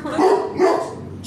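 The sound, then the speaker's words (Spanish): Two sharp, fairly loud barks in quick succession from a dog named Turco barking at a lamp, followed by a brief high hiss-like trailing noise; no talking over them. “Sí, ya escucharon a un perro.”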